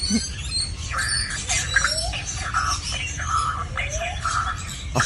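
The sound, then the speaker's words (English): A lyrebird imitates an emergency alarm siren it has picked up, repeating wavering, rising electronic-sounding tones in short bursts over a steady hiss of background noise, fairly loud. “a lyrebird, of course, which is famous for mimicking sounds, has now picked up the sound of the emergency alarm and is parroting it back.”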